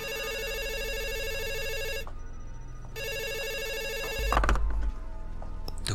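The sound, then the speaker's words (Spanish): A telephone rings in two long, steady bursts separated by a short pause, bright and fairly loud, followed by a brief clattering thump as if the receiver is picked up. “Estaba a punto de atravesar la puerta cuando su teléfono sonó.”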